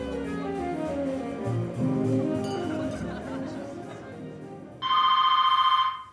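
A loud telephone ring bursts in near the end, a bright sustained electronic trill lasting over a second, after a stretch of muffled background murmur and low music-like tones; the call comes in mid-January 2014.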